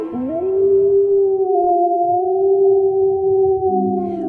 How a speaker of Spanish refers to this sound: Como no podía verlo bien, se subió a una colina y ahí comenzó a aullar.